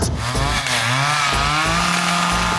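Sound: chainsaw revving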